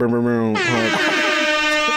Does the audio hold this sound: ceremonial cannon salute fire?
no